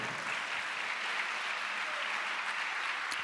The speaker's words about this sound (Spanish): Dale un aplauso a Él, a su nombre, gloria.